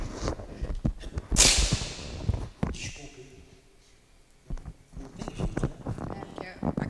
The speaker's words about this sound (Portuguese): Vocês desculpem. De manhã cedo fica com muito humor. É, desculpem em casa, eu espirro.